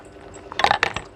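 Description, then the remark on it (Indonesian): Ice cubes clink and rattle in a glass as someone takes a drink, a short cluster of bright, clattering knocks with a faint liquid slosh, no talking. “eh gue minum dulu ya nih”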